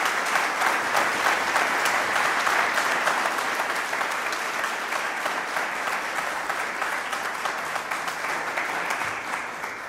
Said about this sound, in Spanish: Nuevamente podemos, por supuesto, aplaudirle y agradecerle su presencia.